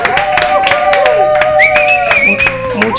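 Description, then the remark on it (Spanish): The audience of Ateneo de las Líneas applauds, the claps sounding loud, with whistles or sustained cheering tones sliding above them for the whole stretch. “Así que, por favor, este aplauso del público de Ateneo de las Líneas”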